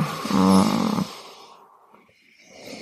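A loud wet sucking noise with a rough, buzzing vibration lasts about a second as a woman sucks on another person's skin to leave a hickey, then fades into quieter slurping and mouth sounds. No one speaks.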